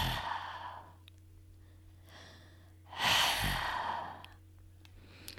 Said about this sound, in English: Imagine you are fogging up a pair of glasses. You should hear a soft hissing sound like that. Once you're comfortable with this exhale, try it a couple times with your mouth.